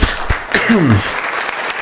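Steady applause from a crowd, a dense, even clatter of clapping with a brief falling voice-like whoop rising over it near the start, applauding the club's women's table football team for winning the Champions League.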